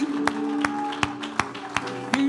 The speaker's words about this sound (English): Let's give him a great big hand clap of praise. He's worthy.